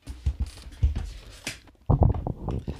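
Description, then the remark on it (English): A chair creaking as someone leans back: a few short scuffing bursts, then a longer, strained creak, fairly loud, with no one talking. “you're stuck in a position because god forbid if you if you breathe wrong the chair starts making noise you know yeah i, so.”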